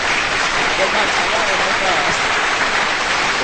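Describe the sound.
A steady burst of applause for a show's next guests, dense clapping from many hands sustained at an even, loud level throughout, with faint voices or cheers mixed into the crowd noise.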